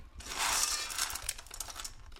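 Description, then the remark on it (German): Crinkly rustling of clear plastic bags mixed with light scraping and clinking as golden-brown snacks are carefully filled from a metal bowl into the bags, steady with no voices. “füllt vorsichtig goldbraune Snacks aus einer Metallschüssel in durchsichtige Plastiktüten.”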